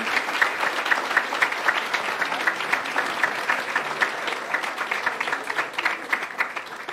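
An audience applauds girls who stand up at a certificate presentation, with many hands clapping in a dense, continuous patter that holds at an even, fairly loud level for the whole stretch, with no voices rising above it.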